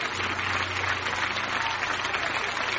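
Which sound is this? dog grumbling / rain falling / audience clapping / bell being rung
audience clapping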